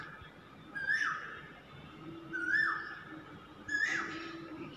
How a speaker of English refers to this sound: No signs of rain, but yes, I can hear the koel singing. She's happy. I hope you can hear that voice.